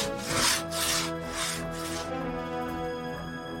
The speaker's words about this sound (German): Und wir zwei starten jetzt mal mit dem Absägen der Scheibe. So muss ich das anhören bei einem eingespielten Team.